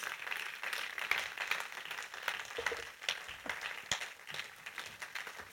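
A crowd applauds steadily, a dense wash of many hands clapping at once with scattered sharper claps standing out, holding at a fairly even level throughout without any voices.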